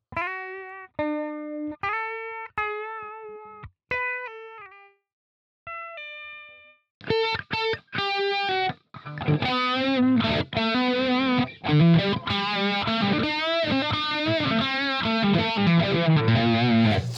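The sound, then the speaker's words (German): Electric guitar played through a virtual automatic wah pedal effect that follows how hard the strings are picked: a few isolated notes with sweeping, vowel-like tone, then a dense distorted strumming passage that keeps the rhythmic filter sweep throughout. “man muss natürlich dem, dem virtuellen Pedaltreter sagen, wie schnell soll er dann auf die Wippe ja, ich treten.”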